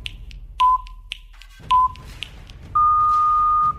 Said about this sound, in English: All right, do the countdown, Brian. Do we have the countdown? What a lame countdown.